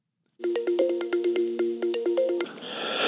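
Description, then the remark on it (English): A telephone rings with a rapid, steady electronic trill lasting about two seconds, loud and close, then cuts off into a burst of line noise as the call is picked up. “Why don't we start with a phone call?”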